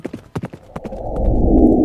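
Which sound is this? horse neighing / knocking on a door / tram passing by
horse neighing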